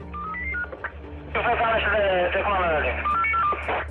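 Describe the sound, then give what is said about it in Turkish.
A walkie-talkie transmission: a short run of electronic beeping tones, then a crackly, narrow-band voice speaking, closing with another burst of beeps, loud. “Telsiz sesine kandı.”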